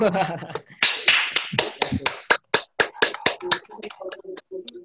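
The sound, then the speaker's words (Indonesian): A small audience breaks into applause for a speaker after his presentation, a loose run of distinct hand claps that thins out toward the end, with a brief voice audible at the very start. “Boleh tepuk tangan dulu buat Mas Yaser.”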